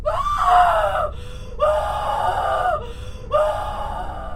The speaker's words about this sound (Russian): Ее глаза расширились, и из груди вырвался душераздирающий вопль.